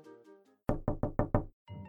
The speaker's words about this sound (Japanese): Presently came along a wolf and knocked at the door and said, すると一匹の狼がやってきてドアをノックしてこう言いました。